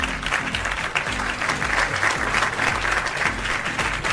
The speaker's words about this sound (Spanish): Un aplauso a todos, por favor.